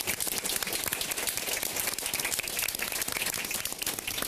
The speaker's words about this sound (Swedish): Tack så mycket allihopa en varm applåd till varandra tycker jag.